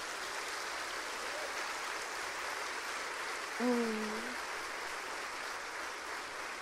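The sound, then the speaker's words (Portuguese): An audience applauds the Lord during a worship service in a steady, dense wash of clapping that holds evenly throughout, with a brief voice cutting through it midway. “Eu sei que você aplaudiu porque eu perguntei.”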